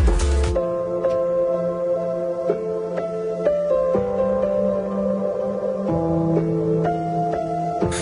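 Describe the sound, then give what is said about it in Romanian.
An instrumental song intro plays with sustained, layered chords that change every second or two at a steady, fairly loud level, with no singing or talking yet. “Uh, hai să ascultăm piesa și după aia să voptă, uh, votăm.”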